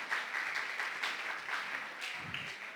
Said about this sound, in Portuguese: Muito obrigada. Vamos dar uma salva de palmas para eles, gente, corajosos.